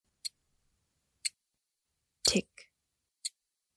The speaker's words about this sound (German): Alles, was ich höre, ist das Ticken der Uhr meines Vaters, die noch immer im Auto war. Das Ticken, das mir zeigt, dass man Zeit nicht zurückdrehen kann.